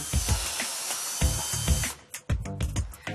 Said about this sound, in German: Die Maschine befestigt die Stahlarmierung im Kunststoffrahmen.